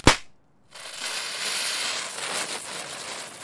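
A tear gas grenade, set off after its pin is pulled, gives a single sharp, dry explosion that cracks out at the very start, followed by a brief dead silence and then a steady, hissing rush of noise, like ringing debris settling.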